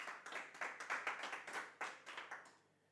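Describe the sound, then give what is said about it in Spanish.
A church audience applauding for the Lord before prayer, a dense burst of many hands clapping at a brisk, steady rate before tapering off toward the end. No voices can be heard. “Un fuerte aplauso para nuestro Señor que vamos a orar.”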